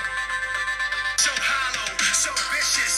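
A rock song plays through a small phone speaker, thin and tinny, with a quieter opening before the full band kicks in loudly about a second later. No one speaks.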